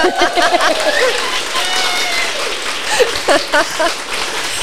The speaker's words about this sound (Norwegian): Det var gøy. Oh, wow! Det der må vi få oss i strikkehytten, bare til vanlig. Bare sånn her eh, shout-out, folkens, så får vi litt applaus midt i episoden. Nydelig.